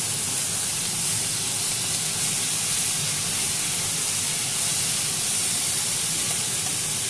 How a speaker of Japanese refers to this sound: これ何の音かっていうとお肉を焼いてた鶏の油がいっぱいあの今、あのー、流れてたフライパンの上にぶなしめじとですねキャベツを敷いて鶏肉と混ぜ焼きをしているという混ぜ炒めをしているという状況です